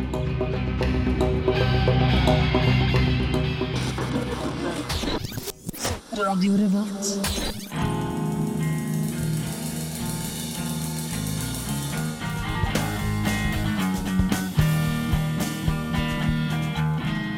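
A rock song plays steadily and loud on Radio Revolt, with distorted electric guitar, a full band underneath, and a brief break near the middle before the music surges back in.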